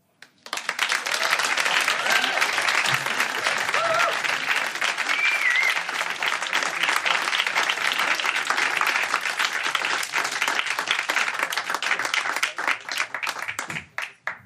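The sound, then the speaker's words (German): Sustained applause from a large audience after a spoken piece on stage, a dense, steady roar of many hands clapping that holds for about thirteen seconds before tapering off into a few last claps. “Ich glaube, der lange Applaus sagt, was ich auch sage.”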